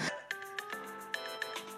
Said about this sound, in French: Vous avez déjà par inadvertance à la terrasse d'un café entendu une sonnerie que vous aviez l'habitude d'entendre, l'été 2015 par exemple.